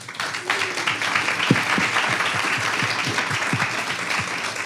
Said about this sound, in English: Um, all right, so on that note, I just want to thank first our panelists for this. If we just give them a round of applause.